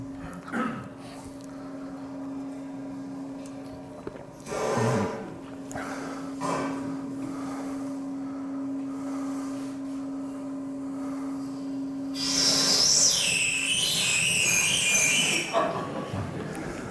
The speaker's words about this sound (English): And then we can change the pitch of the whistle by changing the length of the, bur- of the tube above the burning surface.